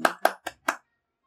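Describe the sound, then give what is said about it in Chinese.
Four quick, sharp hand claps in a short burst, evenly spaced and fairly loud, followed by silence, as applause of encouragement for Snow White in a told story. No voices are heard. “大家听了，觉得白雪公主说的很有道理，都给她大大的掌声鼓励。”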